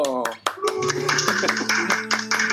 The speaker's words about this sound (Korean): 예 박수 주세요